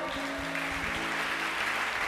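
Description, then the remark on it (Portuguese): Congregation applause for the Lord during a sermon, a steady dense wash of clapping for about two seconds, with faint sustained tones and some low murmuring voices beneath it. “Pode aplaudir o Senhor.”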